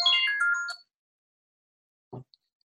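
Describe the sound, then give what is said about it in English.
A phone ringtone plays a quick, bright melodic burst of electronic tones, then stops abruptly. After a pause there is a short, low knock, with no talking. “apparently i didn't shut off my phone today before we started recording”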